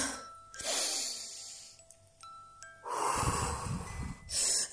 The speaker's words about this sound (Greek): Τώρα πάρε πέντε βαθιές ανάσες και στην εκπνοή μέτρα μου. Μία.